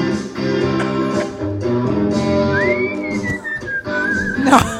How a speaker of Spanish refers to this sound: en el caso de los loros, en este caso compite el loro llamado Tico, que mientras un loro toca la guitarra y otro el bajo, él acompaña con sus silbidos y otros sonidos guturales.